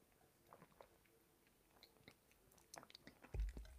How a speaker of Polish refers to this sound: Teraz będą trzy łyki wody z miedzianego kubka, żeby się odświeżyć. Wszyscy możemy łykać teraz.